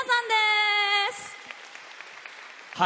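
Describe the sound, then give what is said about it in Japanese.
A long held, voice-like tone gives way to a steady patter of applause from an audience welcoming a band member, a new visiting professor of the expression department, at a final class presentation; softer than the opening note, continuing for a couple of seconds. “それでは早速ですがお呼びいたしましょう大きな拍手でお迎えください …”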